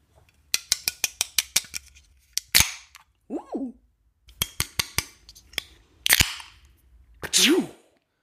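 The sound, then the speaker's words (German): A bottle of Mikkeller Limbo Series Jujutsu sour beer, brewed with added fruit, being opened: rapid metallic clicks and crackles, then short sharp bursts of fizzing hiss, fairly loud, with brief vocal sounds in between. “Ich werde einfach euch das Geröff in die Ohren schießen.”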